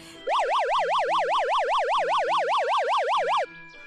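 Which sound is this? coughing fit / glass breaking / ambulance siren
ambulance siren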